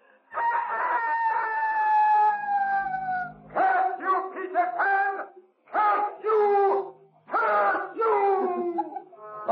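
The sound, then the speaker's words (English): A voice loudly imitates a rooster's crow as Peter Pan's taunting cry of victory from the shore: one long, drawn-out crowing call followed by a quick series of shorter, warbling crows with brief pauses between them. “And from the shore came Peter Pan's taunting cry of victory.”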